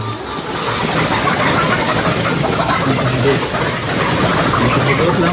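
A dense, constant chorus of many chickens clucking and chattering together in coops at a moshav near Avivim in northern Israel, close to the Lebanese border, layered over a steady low mechanical hum like ventilation fans, with no talking.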